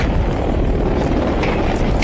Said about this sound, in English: I'll tell you, that, that uh, helicopter, he's holding it pretty steady up here, man.